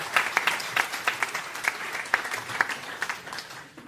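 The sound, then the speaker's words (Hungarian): An audience applauds steadily, a dense wash of many hands clapping with sharper individual claps standing out, sustained for a few seconds before tapering slightly at the end. “Úgyhogy én most elengedlek, viszont tényleg egy nagy tapsot megérdemel”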